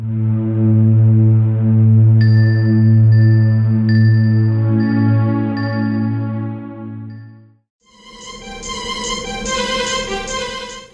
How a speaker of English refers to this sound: synth sound that starts the song has a lot of white noise, like an airy quality to it, reminiscent of the blowing wind sound effect of Freezeezy Peak.